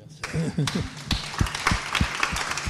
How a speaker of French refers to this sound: Merci à nos orateurs qui ont été très brillants. On les remercie, on les applaudit.